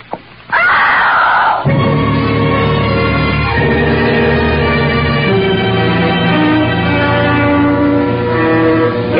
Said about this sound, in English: was a good, loud scream.